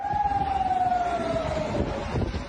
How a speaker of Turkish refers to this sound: Siren sesleriyle protesto çağrısı yaptılar.